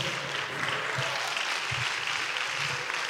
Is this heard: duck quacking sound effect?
no